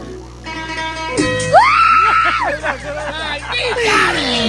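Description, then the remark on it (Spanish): A person in a recording being played back lets out a long, loud, high-pitched scream that rises sharply and holds, followed by shorter wavering cries over a murmur of voices and background noise. “ese, ese grito tú no puedes hacerlo. Ese grito tú no puedes hacerlo por joder. Ese grito te sale de verdad.”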